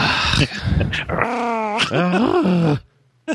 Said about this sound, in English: Uh, shut up! Oh my god, fucking dog! The dog's like, yeah, God is dead.